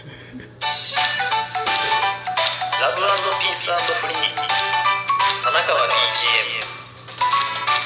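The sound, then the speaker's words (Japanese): A newly made original jingle: short and bright, with electronic chiming melodic tones, plays steadily for several seconds, with a voice singing or speaking along over the music. “オリジナルジングル完成！！”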